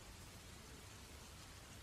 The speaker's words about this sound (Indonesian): Apalagi di hujan lebat seperti ini.